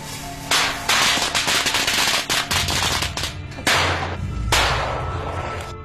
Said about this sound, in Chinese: 在石人湖边，只要弄出大一点的动静，都能让老天下雨。为了验证这个说法呢，有人拿出了一挂鞭炮，在湖边放了起来。